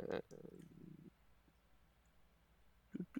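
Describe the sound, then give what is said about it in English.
A digital dice roll sound effect from an online Dungeons and Dragons dice roller, rolled for a perception check: a sharp click followed by a quick rattling clatter lasting about a second, then quiet, with brief voice-like bursts near the end. “I like that dice roll on D and D Beyond. It's actually pretty cool.”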